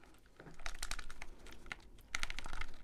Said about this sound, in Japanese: そして、えー、続いてはその後に生まれたハイパータップと呼ばれる技法の音です